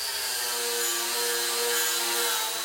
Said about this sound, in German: Dieser Winkelschleifer arbeitet im Auftrag von MTW.